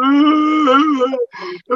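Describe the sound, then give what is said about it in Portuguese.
A man's voice imitates a mournful wail, holding one long, loud, quavering moan for over a second, then breaking into two shorter sobbing cries. “Se Olha os caras riam o dia inteiro, coloca lamentos tipo.”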